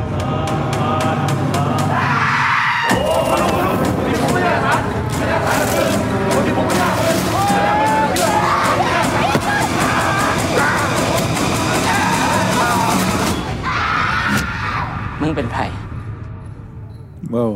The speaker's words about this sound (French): Très beau cri. Allez, quel merdier mm. ah, Les cris sont vraiment réussis.